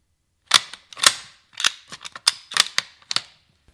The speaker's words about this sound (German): Repetiergewehre sind Waffen, bei, der man, bei denen man nach jedem Schuss eine Art Hebel oder einen Knopf ziehen muss, damit die Waffe eine neue Patrone lädt. Ja, und das klingt dann so, wie ich es am Anfang schon eingespielt habe.